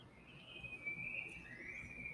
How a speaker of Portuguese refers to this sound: dos pássaros que cantam.